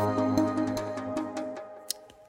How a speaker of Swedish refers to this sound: Vad var det? Det var ju en säng som gnisslade för att det var någon som pökade i den.